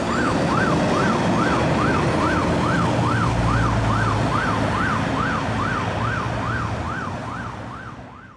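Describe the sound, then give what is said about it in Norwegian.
An ambulance siren wails in a steady rising-and-falling pattern over engine rumble as the ambulance drives toward the town, loud at first and gradually fading toward the end as the vehicle drives away. “roper Bjørnis og vinker til ambulansen som kjører mot byen.”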